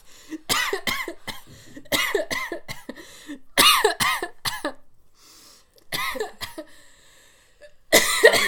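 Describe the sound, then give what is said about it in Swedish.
A person coughs hard in repeated harsh, sputtering bursts after drinking water that went down the wrong way, with short gasping pauses between fits and one last loud cough at the end. “Ni vet när man sätter i fel strupe.”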